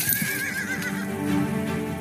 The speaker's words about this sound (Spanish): El carruaje era llevado por dos caballos blindados.